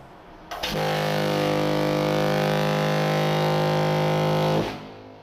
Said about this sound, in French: Dans la deuxième partie de l'épisode, on verra comment tirer parti d'une sirène de paquebot, que voici.